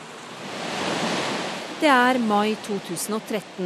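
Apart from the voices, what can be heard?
rushing floodwater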